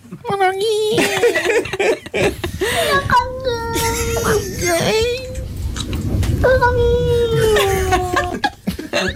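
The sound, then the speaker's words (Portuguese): A stressed, angry cat yowls in several loud, drawn-out wails, each wavering and bending in pitch with only brief breaks between them. “Isto, isto, eles fazem estes sons quando estão em stress ou quando estão zangados com alguma coisa ou com outro gato.”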